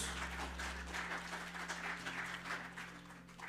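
A church audience applauds Christ steadily, a dense wash of many hands clapping at once that holds an even volume throughout, with a low steady hum underneath and no voices.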